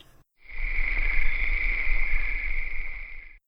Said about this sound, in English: No bingo. Silence. Cricket, cricket.